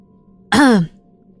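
A man clears his throat once after drinking a sip of water, a short voiced rasp that slides downward in pitch and fades within half a second, loud against an otherwise quiet background with a faint steady hum.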